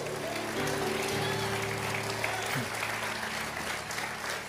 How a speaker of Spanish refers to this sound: Alguien le da un aplauso a Cristo.